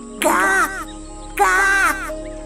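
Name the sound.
crow cawing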